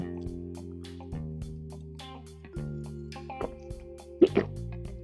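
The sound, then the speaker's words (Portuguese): A couple of short, wet sipping sounds of water from a glass close to the microphone near the end, over a steady background of sustained musical tones. “Então, bem pertinho do microfone, ó, veja o barulho do copo.”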